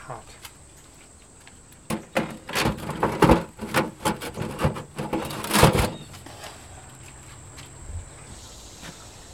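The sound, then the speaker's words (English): A baker fits a thick metal door over the entrance of a bread oven holding a batch of loaves: a loud run of clanks, scrapes and knocks for about four seconds, then a low steady hum. “Once the loaves are inside, he fits the thick metal door over the oven's entrance and notes the time.”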